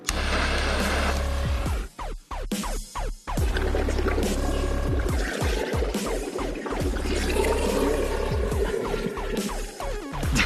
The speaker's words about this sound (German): ja, Feuer unter Wasser, hatte ich zu viel versprochen. Der Witz ist, diesen Stoff, den kennen Sie wahrscheinlich. Das war nämlich so eine handelsübliche Wunderkerze.